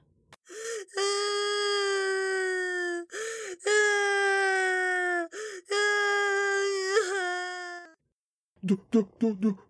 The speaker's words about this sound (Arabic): وفي الطريق راى ليث خالدا ابن جيرانه واقعا على الارض يبكي والدم يسيل من ركبته